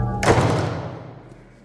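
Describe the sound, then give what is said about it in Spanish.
A door, flung open and then shut, slams with a single heavy thud, its boom fading over about a second and a half. No one speaks. “En un arranque de desesperación, me abalancé hacia la puerta, la abrí de golpe y la cerré tras de mí.”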